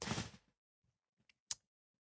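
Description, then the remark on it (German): A brief rustling burst, then quiet, followed by a couple of small sharp clicks of a computer mouse being clicked to open an email, fairly crisp, with no talking. “Also, ich habe da noch nicht reingeguckt und ich hoffe, dass ich nicht einfach ausgelockt wurde wegen Inaktivität, aber ich klicke jetzt diese E-Mail an.”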